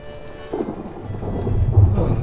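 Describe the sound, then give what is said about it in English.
Heavy rain pours steadily while deep thunder rumbles, swelling louder toward the end; no voices, just the storm. “It'd be nice to see some dry weather now and again. You know, some people like storms.”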